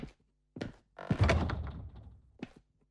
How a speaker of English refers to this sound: Do you mind if I shut the door?